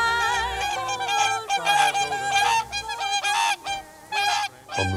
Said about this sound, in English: Our tweet of the season today is the Whooper Swan. The Whooper Swan, named after its bugling call, which is given predominantly when they're in flight.